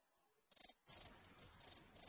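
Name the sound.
crickets chirping sound effect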